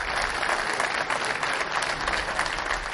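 Warm, sustained applause from about 90 prison inmates welcoming the Pope at a prison in Naples, Italy: dense and steady clapping filling the whole stretch at an even, fairly loud level with no pauses and no voices standing out.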